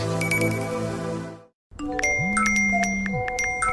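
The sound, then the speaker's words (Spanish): Mobile phone notification sounds: a dense flurry of bright electronic pings and chimes over a sustained tone, a brief silence, then another burst of overlapping alerts with a low gliding tone. “Sería bueno que por un día no recibieras tantas notificaciones en tu celular.”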